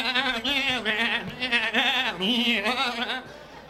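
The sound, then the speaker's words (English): A person imitates hungry goats at a petting zoo, letting out loud, quavering bleats that waver continuously for several seconds with only brief dips between cries. “They don't feed those goats. They don't feed them for like a month.”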